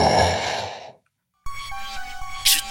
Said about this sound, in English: The sound of movement, something scrambling its way across the dirt to her. As it got closer, she could hear ragged, irregular, labored breathing.